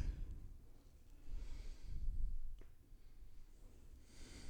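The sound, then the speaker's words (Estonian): A voice imitates heavy panting: several breathy exhales and inhales in an uneven rhythm, fairly quiet and with no words spoken. “raske hingeldamine.”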